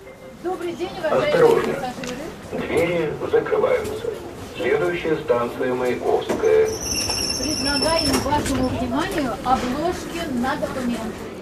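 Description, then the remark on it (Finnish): A metro train car in Saint Petersburg rumbles along its rails with a steady low roar and a brief high-pitched wheel squeal midway, while a person talks loudly over the noise; a woman boards trying to sell passport covers to passengers. “Pietarissa metrovaunuun nousee nainen, joka yrittää myydä matkustajille passien suojuskansia.”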